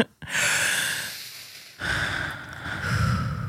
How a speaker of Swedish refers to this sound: Gud vad jag bara behöver ta ett djupt andetag. Kan vi inte göra det tillsammans? Kan vi inte bara andas?